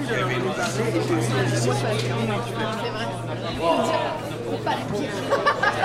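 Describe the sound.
A steady murmur of many voices chattering at once on a busy café terrace, where people who work in the neighbourhood eat sandwiches and drink lemonade. Overlapping conversations run over a low constant hum.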